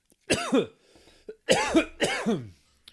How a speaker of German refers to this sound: Huste dich mal schön aus. So fängt die Folge gut an.